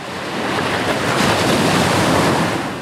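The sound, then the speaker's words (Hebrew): Steady surf: waves wash and break continuously onto the beach with a broad hiss, swelling slightly midway, with some wind rumble and no voices. “זה מקום מצוין לעורר נוסטלגיה, כי הרבה אנשים מגיעים לחוף הים רק כשהם בחופש, זיכרונות מחופש הם לרוב חיוביים, או שאפשר להפוך אותם לחיוביים בקלות יחסית.”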